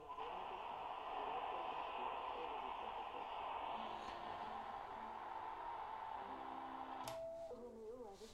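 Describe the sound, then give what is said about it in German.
A Sony shortwave world receiver hisses with steady static and faint tones, then near the end a sharp click and wavering, sliding whistles cut in as the tuning shifts. “Und nachts ist es ganz, ganz viel, tagsüber ist es ein bisschen wenig, aber auch der Sony pfeift.”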